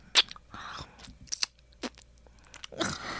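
Crunchy popcorn being chewed in a handful of sharp, crackling bursts at an uneven pace, with soft mouth sounds in between and no talking, in an ASMR recording.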